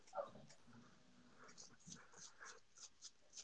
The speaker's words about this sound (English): Somebody's dog is snoring like a motherfucker. Pun. He's out. he's knocked out.